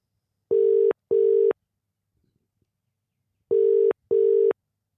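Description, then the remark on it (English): A telephone ringback tone sounds alone: two double-pulse rings, each pair of steady buzzing tones separated by a pause of silence. It is clear and moderately loud, with no voices. “All right, let's give them a call.”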